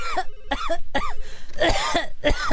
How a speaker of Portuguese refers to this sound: se você tossir de novo, você tá demitida, meu.